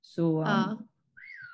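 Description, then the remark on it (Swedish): A person speaks briefly, then after a pause the speaker's phone's whistle notification tone chirps once, a short, bright, rising-and-falling whistle at moderate volume. “oj förlåt det var min telefon.”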